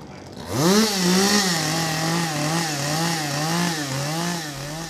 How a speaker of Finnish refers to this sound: Moottorisahat lauloivat Toivolassa parin päivän ajan ja katos valmistui